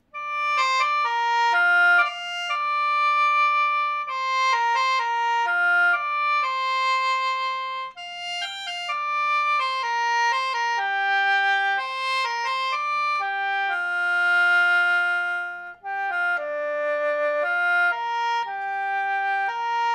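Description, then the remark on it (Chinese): A sheng plays a solo melody in bright, reedy chords, its sustained notes shifting steadily in pitch over a faint low hum, loud and continuous with brief breaks between phrases. “那听众朋友，您刚才听到的这个呃声独奏呢，就是《鹅銮鼻之春》的一个选段哈。”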